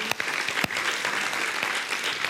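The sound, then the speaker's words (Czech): A crowd at a Sunday gathering claps steadily for their friends from Mozaika for their service, a dense, even wash of many hands with a few sharper individual claps standing out, sustained at a fairly loud level throughout with no talking. “Pojďme ještě jednou zatleskat našim přátelům z Mozaiky za jejich službu”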